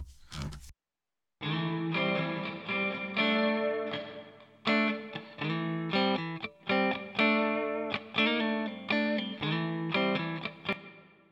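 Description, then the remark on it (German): A melodic phrase of sustained, slightly distorted notes rings out through a 'Room A' reverb preset, chosen as smaller than a large hall, that adds a short ambient tail, following a brief noise burst and a second of silence. “Dann nehmen wir doch mal hier den, den Room A.”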